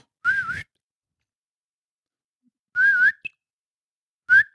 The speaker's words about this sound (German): Lustig ist, er kann pfeifen.